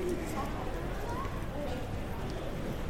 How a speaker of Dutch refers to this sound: Op de achtergrond hoor je nu al de luchthaven Schiphol, die met deze dopjes is opgenomen. Dus je hoort hier eh, het achtergrondgeruis van hoe het daar op Schiphol is.